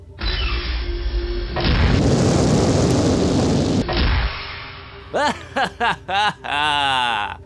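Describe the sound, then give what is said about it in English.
A low rumble swells into a loud, sustained rushing boom as an airlock blasts open and ejects people into space, then cuts off, followed by several short bursts of voiced laughter. “Captain, you ejected them into space.”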